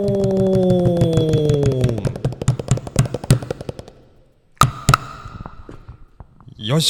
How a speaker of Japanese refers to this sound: 若干のエコーのかかったよいしょでい きましたけれども、ね